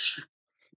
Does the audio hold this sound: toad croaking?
no